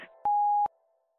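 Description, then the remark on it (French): A single loud, steady electronic answering machine beep at a mid-high pitch lasts just under half a second, starting and ending with a slight click, followed by near silence. “Parlez après le bip.”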